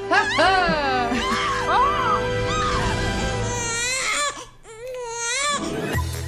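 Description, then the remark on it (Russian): A short segment jingle where a baby's loud, wailing cries rise and fall in repeated bursts over a steady musical backing, with a brief dip in the middle before the crying returns. “да, еще раз перебивочку.”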